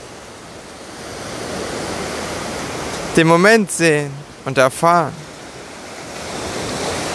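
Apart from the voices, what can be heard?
ocean waves rushing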